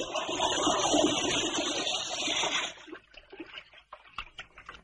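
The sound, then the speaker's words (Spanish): Water from a bathtub is poured from a bucket into a toilet whose flush chain has come loose, a loud, steady gushing splash lasting a few seconds before stopping abruptly, followed by scattered drips and small trickles. “Coge un cubo y lo rellena de esta. En la bañera nada un pez. Deposita el agua del cubo en el retrete.”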